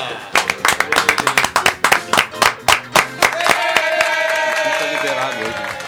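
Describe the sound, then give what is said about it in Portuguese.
A brief round of applause in the studio of the radio show Deixa que eu chuto, for the audio desk operator's birthday, sharp uneven claps for a few seconds, then the clapping thins out under a sustained background of voices and tones. “De imediato, uma salva de palmas.”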